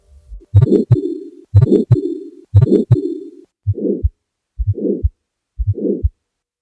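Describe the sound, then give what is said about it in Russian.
Stethoscope recording of an aortic stenosis systolic ejection murmur: six slow, steady heartbeats, each with a harsh, rising-then-falling whoosh between the heart sounds, loud and clear with no voices. “Шум аортального стеноза лучше всего слышен в области второго межреберия справа от грудины вниз до верхушки сердца.”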